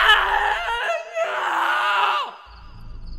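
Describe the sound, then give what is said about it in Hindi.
A man screams loudly and hoarsely in two long, strained bursts separated by a short gap, distressed, fading into a quieter groan at the end. “साल 2001 के अप्रैल महीने में दिल्ली के पास सहीबाबाद इलाके में कुछ लोग अपनी छत पर सो रहे थे अचानक एक आदमी के जोर से चीखने की आवाज आई”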